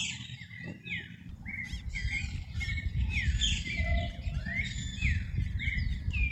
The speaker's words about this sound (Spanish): Escucha el parloteo de loros y cotorras por las tardes.